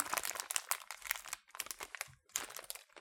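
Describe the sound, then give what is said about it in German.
Crinkling plastic of a water-filled pouch being pressed and sealed shut, in several dense bursts of rustling with brief pauses between them, no voices. “Das Wasser ist eingefüllt. Wir machen zu.”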